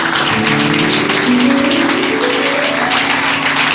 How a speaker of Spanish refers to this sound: Dale un aplauso al Señor esta noche, por favor dale fuertes aplausos al Señor en esta noche.